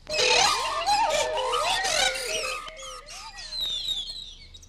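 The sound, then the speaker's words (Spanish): A dense, overlapping chorus of birds chirping and tweeting, with shrill squawky calls and rising whistles crowding together and continuing steadily throughout, with no talking. “Sí, muchos pajarracos.”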